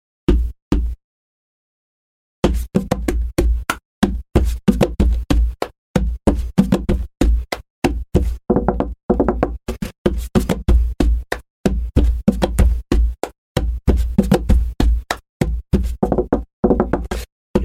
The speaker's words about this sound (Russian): Сейчас его исполню исполняется с помощью ударов. Ну, вообще можно по столу, но здесь сейчас все будет прыгать, поэтому у меня отдельный, отдельный столик карманный такой. Либо я делаю удар ладонью по столу, либо кулаком, либо кулаком по ладони.